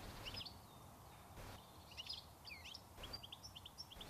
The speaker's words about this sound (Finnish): Se on suorastaan yleinen puutarhoissa, ratapihoilla, puistoissa, hautausmailla, erilaisissa pihapiireissä ja peltoympäristöissä. Pääkaupunkiseudulla tiklin laulua kuulee lähes kaikkialla, uskokaa tai älkää.